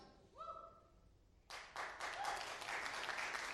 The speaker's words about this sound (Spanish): Aplaudan bien si para el Señor.